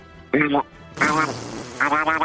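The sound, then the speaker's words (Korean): A person in a voice-mimicry segment mimics a duck with three nasal, buzzy quacks, each a short harmonic burst, the second longer and louder, spaced by brief pauses. “오리 소리 한번 해보겠습니다.”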